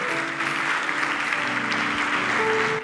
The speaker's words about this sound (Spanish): Dale un aplauso a Dios si lo crees. Atrévete.